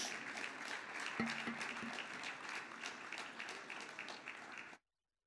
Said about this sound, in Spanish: Así que lo vamos a recibir, amén, con un fuerte aplauso de alabanza para nuestro Dios.